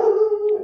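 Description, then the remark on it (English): A dog barking at the mailman gives a single drawn-out, howl-like bark, steady and fairly loud, with no talking over it. “And sorry about the dog barking.”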